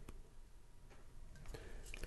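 A quiet sip from a glass of a drink aged in French oak red wine barrels, with soft wet mouth clicks and a faint slurp against low background hiss; no one speaks.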